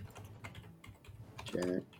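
Soft, irregular clicks of someone typing on a computer keyboard, fairly quiet, with a brief humming tone rising over the keystrokes near the end.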